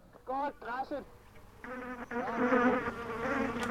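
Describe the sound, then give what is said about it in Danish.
Flies buzz, first in two short bursts, then in a louder sustained drone whose pitch wavers and swoops as they move around. “hvad med de der fluelyde?”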